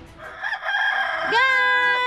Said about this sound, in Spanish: ¡Gallo!